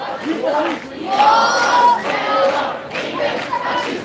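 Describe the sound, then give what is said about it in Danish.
A large marching crowd in a procession chants in unison, loud and rhythmic, with many voices rising and falling together in repeated slogan-like phrases, 'ingen racister' (no racists), over a constant background roar. “Det er sjovt, at, at den mest racistiske bevægelse i dag går og råber ingen racister.”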